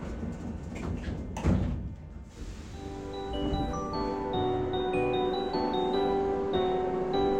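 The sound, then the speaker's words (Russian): Metro train doors slide and thump shut once over a steady rumbling background, followed by a rising electric whine of tones as the train begins to move. No one speaks. “Осторожно, двери закрываются.”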